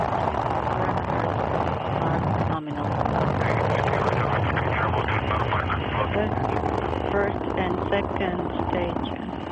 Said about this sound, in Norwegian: We have main engine start. Lift off. Engines at maximum thrust. and liftoff. Liftoff of the Soyuz rocket as Jeff Williams, Max Sarayev, and Guy Laliberté begin their journey to the International Space Station.